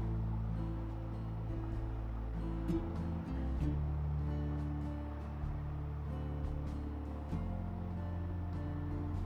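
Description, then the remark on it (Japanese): A motorcycle engine drones steadily while being ridden at about 40 km/h, its low harmonic hum stepping up and down in pitch with rpm changes, under constant rushing wind noise. No one speaks. “バイクに乗りながらはじめて収録してみました。エンジン音など入っています。”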